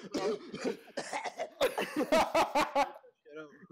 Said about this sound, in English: Yo, if it's if it's inevitable and you just I can't like like I can't not fart, I'm gonna fucking cough like I've never coughed before.